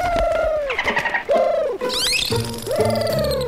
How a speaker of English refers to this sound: backstage trying to communicate with a bottlenose dolphin?